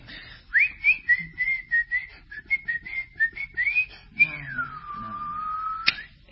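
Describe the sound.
Someone whistles a short folk melody in clear, quick notes, mimicking a parrot, then finishes with a long sliding whistle that dips and rises before cutting off. No talking.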